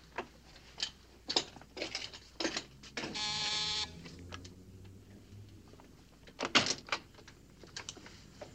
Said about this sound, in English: Oh, shucks. What did you have to open the door for? Couldn't you wait for the witch?